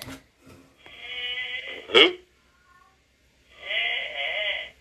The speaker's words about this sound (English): Y'all don't hear somebody moaning? Is someone That's snoring? my dog. That's my dog snoring.